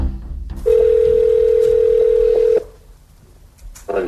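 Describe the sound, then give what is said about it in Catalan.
A steady, mid-pitched telephone dial tone hums loudly for about two seconds and then cuts off, leaving a quiet line hiss before a brief sound at the end, as a call is placed to another person for whom Navalny poses as someone else. “Per tant, ara truquen a un altre nom, però aquesta vegada Navalny no diu qui és, sinó que es fa passar per una altra persona.”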